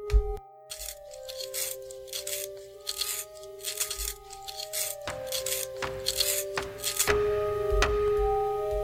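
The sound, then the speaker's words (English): A pencil being sharpened, with repeated gritty grinding strokes over a steady whirring tone, going on continuously for several seconds with no talking. “Um, are you gonna do anything but sharpen that pencil?”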